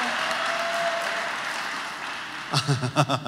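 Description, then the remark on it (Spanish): An audience claps in a steady, dense wash of applause for a couple of seconds, given for an absent pianist, then it thins out as a voice starts speaking over the tail end. “Ahora démosle otro fuerte aplauso al pianista que no está.”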